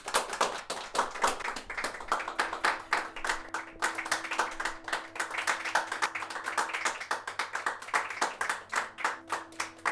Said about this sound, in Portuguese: Palmas, palmas aí, galera. Palmas.